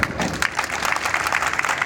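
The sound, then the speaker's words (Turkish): Sustained applause from a crowd of health workers protesting unfair performance pay, many hands clapping in a dense, steady patter with sharp bright transients, fairly loud throughout, with a faint murmur of voices underneath. “Bu performans adaletsizliğine karşı şimdi en güçlü sesimizle, en yüksek gücümüzle COVID'le mücadele ettiğimiz gibi alkışlarımızla protesto ediyoruz”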